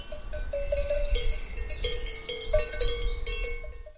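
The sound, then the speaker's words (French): Several cowbells clank and ring irregularly from cows grazing in a meadow, overlapping metallic clangs over a low outdoor rumble, with no voices. “Tu te retrouves devant une prairie avec des vaches possédant des cloches.”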